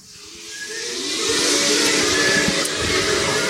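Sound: hissing steam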